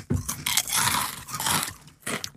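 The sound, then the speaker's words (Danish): Someone crunches on crispy food, with a few loud, crackling bites and chews that come in quick succession. The crunching is bright and brittle, and nobody speaks. “Det er oh, sprødt.”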